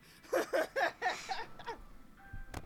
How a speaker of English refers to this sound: What is happening? It was my phone. Oh, good morning. I don't know who called me, but cool.